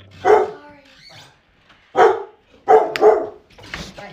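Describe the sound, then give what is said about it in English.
Dogs bark loudly in a few sharp, irregular bursts, with short pauses between them and a softer yelp near the end, set off by someone knocking on the door. “knowing it's just the three of us here, went and knocked on the door to go to the bathroom, so the dogs went crazy.”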